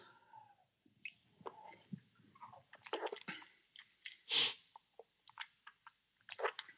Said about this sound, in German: Muss man dazu, aber lass mal trinken. Ja, definitiv. Lass mal den Brownie trinken.